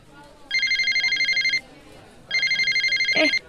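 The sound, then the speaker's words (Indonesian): A telephone rings twice, each ring a rapid, trilling electronic warble lasting about a second, separated by a short pause. Loud, with only faint background noise between rings. “Sorry bentar, gua nggak telepon dulu.”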